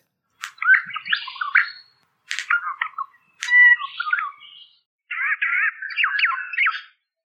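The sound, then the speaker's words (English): Regent honeyeater calls played back to back, first its own notes, then its mimicry of a Black-faced cuckoo-shrike: four clear bursts of chirpy, warbling bird song in the upper range, moderately loud, with short pauses between them. “and this is what they sound like back to back.”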